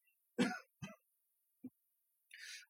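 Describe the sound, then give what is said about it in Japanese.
A person coughs twice in quick succession, fairly loud, followed by a small throaty grunt and then a sharp breath drawn in. No speech. “ちょっと咳込みます。”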